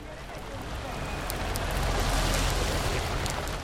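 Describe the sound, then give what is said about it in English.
Heavy rain pours down in Pune, India, in a dense, steady hiss that swells slightly louder midway, with scattered sharper drops and a low rumble beneath, continuous throughout. “On a very rainy day in Pune, India, I recently met another woman”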